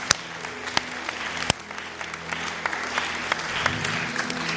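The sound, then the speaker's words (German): An audience claps steadily, a dense, continuous patter of many hands with a few sharper individual claps standing out, sustained throughout without any talking. “Komm, wir geben Ihnen einen großen Applaus.”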